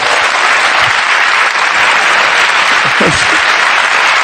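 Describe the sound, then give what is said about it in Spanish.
Sustained audience applause for a stand-up comedian, a dense, steady wash of many hands clapping at even loudness throughout, with a few brief voices or cheers rising faintly within it. “Es más, son seis minutos que tengo que estar, tenía preparado cuatro, así que si son dos minutos de aplauso, lo ponemos redondo y engañamos a todo el mundo.”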